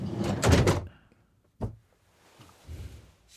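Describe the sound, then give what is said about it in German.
The door of Martan Rock's car is opened with a brief rattling, rushing clunk, then slammed shut a second later with a single solid thud, followed by faint low rumbling. “Aber wir haben das, das, das Martan Rocks Auto kurz einmal auf und zu gemacht.”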